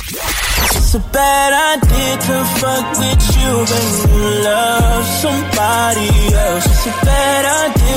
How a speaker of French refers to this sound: on est là pour le top 20 des meilleurs sons africains du moment. Et là, on va commencer à se rapprocher, oui, oui, de la tête du classement, même si on est que au numéro 9.